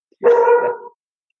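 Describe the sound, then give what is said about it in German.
A single drawn-out dog bark, loud, lasting under a second with a slightly whining, tonal quality, then silence. “Das ist mein Hund. das stimmt mir zu, würde ich sagen.”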